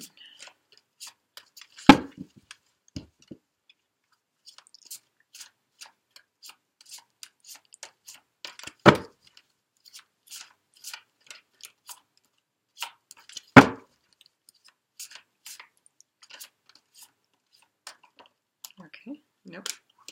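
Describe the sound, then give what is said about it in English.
Oracle cards being shuffled during a card reading: a steady scatter of crisp papery clicks and flicks, with three louder slaps as the deck is knocked together. No one speaks. “I have already shuffled all the decks, Cancer, but I'm just going to shuffle again as I tune into your energies.”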